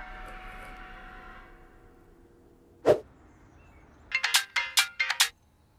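A phone rings with an incoming call, a quick burst of bright, repeated electronic tones near the end, preceded by a single sharp tone and a soft background hum.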